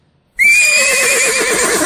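A horse whinnies loudly, one sustained, quavering neigh that starts abruptly after a brief silence and carries on with a shaky, trembling pitch.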